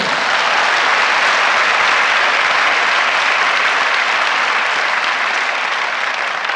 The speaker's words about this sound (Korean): 박수 한번 치는 겁니다. 이럴 때는.